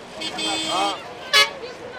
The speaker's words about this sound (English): At a chaotic bus station in Bamako, some displaced northerners load their belongings on top of a battered green bus heading north.